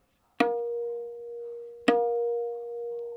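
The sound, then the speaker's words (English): Two tabla dayan strokes played with the first finger in the middle area of the drumhead, the note called din, each a sharp attack followed by a clear, sustained pitched ring that fades slowly. The strokes are spaced about a second and a half apart, with no talking. “And then if I use my first finger in the middle area, that note is called din, and it sounds like this.”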